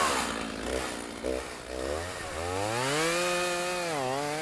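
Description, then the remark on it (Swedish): Chainsaws sputter to life at ten o'clock and roar, engine pitch rising and falling in surging revs as they bite into tree wood while felling trees, loud and steady throughout with no voices. “Klockan är tio, motorsågarna startas och det tar inte lång tid innan första trädet faller.”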